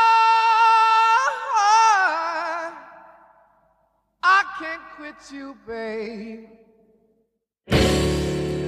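A blues rock intro: a lone voice wails long, bending notes with heavy vibrato and pauses between phrases, then the full band crashes in loudly at the end.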